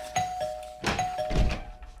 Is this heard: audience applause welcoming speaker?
no